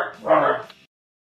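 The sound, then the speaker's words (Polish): Dogs barking because someone knocked at the door: one short, loud, harmonic bark-like burst lasting about half a second, then silence. No other sounds around it. “Ja chciałem przeprosić e, słuchaczy, dlatego że niestety ktoś pukał do drzwi i moje psy się odezwały więc przepraszam, e, mam nadzieję, że tutaj nie popsuło klimatu, który mieliśmy”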